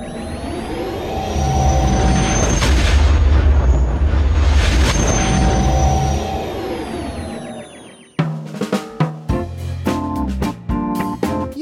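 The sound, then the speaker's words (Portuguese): A sci-fi spaceship jump-to-hyperspace effect: a loud, deep roar swells and sweeps up and down for several seconds, then cuts off abruptly as music with distinct notes begins. “liga o Hyperspace aí e vão embora daqui.”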